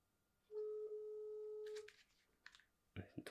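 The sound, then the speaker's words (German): A phone's dialing tone, from a call to a mobile phone, sounds once as a loud, steady hum lasting over a second, then cuts off, followed by faint rustling and a couple of short knocks. “Ruf mich auf mein Handy an.”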